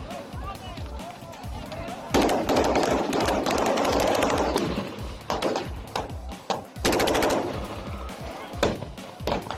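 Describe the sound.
Chaotic stretches of sharp, rapid gunfire as local residents clash with a criminal group of extortionists, loud bursts of crackling noise broken by brief pauses, with shouting voices mixed in throughout.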